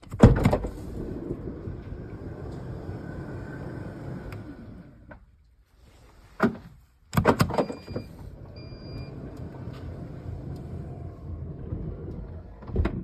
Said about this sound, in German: Also wir machen die Schiebetür erstmal auf. Ja, elektrisch. Entweder über die Taste unterhalb des Navi-Bildschirms oder über den Schlüssel.